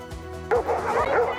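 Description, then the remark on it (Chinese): Hundreds of golden retrievers of many colours, gathered on a lawn in Scotland to celebrate the breed's 155th anniversary, bark and yip in overlapping bursts, a busy chorus of several dogs with loud barks rising over a steady murmur of crowd noise from owners from twelve countries. “狗叫声此起彼落，草地上挤满各形各色的黄金猎犬，金黄色、浅白色、白色，各种颜色都有。”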